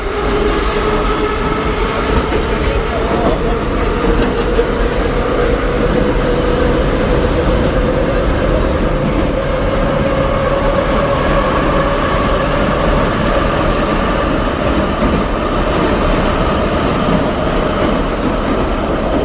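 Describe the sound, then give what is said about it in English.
A Moscow metro train heading out of Spartak station roars along the tracks at high speed, a loud, continuous rattling rumble with a rising metallic whine, recorded from inside the carriage with no voices. “but it is quite unique because A, it flies along at a million miles an hour, and you feel like at any point you are going to jump off the tracks and uh, in a fiery train wreck.”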